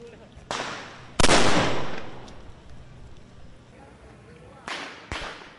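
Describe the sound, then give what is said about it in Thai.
Sharp gunshot cracks ring out during a simulated emergency drill as teachers of Dara Academy school in Chiang Mai, Thailand, run away: a single shot, then a louder blast with a long echoing tail, followed a few seconds later by two quicker shots in succession. “เสียงปืนที่ดังขึ้น พร้อมกับการวิ่งหนีอย่างรวดเร็วของกลุ่มครูโรงเรียนดาราวิทยาลัยจังหวัดเชียงใหม่ เป็นการฝึกเผชิญเหตุเสมือนเกิดสถานการณ์จริง ในฐานแรกคือหนีที่ทางครูฝึกจากหน่วยปฏิบัติการพิเศษตำรวจภูธรภาค 5 ใช้ในการฝึกอบรมเชิงปฏิบัติการ”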